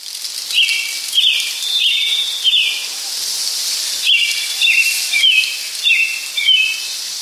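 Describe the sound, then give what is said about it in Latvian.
Birds singing in a forest of pines, spruces and other trees: bright, warbling whistled phrases come in two lively bursts over a steady airy hiss of woodland ambience, clear, with no voices. “Jā, tā skan mežs, kad priedēs, eglēs un citos kokos dzied putni.”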